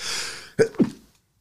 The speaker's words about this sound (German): Gesundheit. Oh ne, bist du einer, der den, den Nieser nicht rauslässt? Äh, hier halt mir die Nase zu, ja?